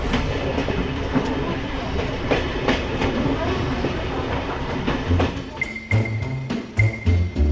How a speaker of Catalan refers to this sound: Com eh, va sortir aquesta iniciativa eh, d'inventar de, de nou el tren, un tren sobre aquesta línia?